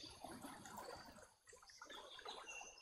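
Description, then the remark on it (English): Steady flowing water trickles and babbles continuously, a soft outdoor wash of sound with faint higher bird chirps above it and no talking. “I can hear the water.”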